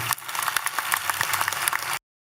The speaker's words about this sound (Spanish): Ay, todo el mundo aplaudiendo ahí, eh, todos los, mierdas esos que están ahí.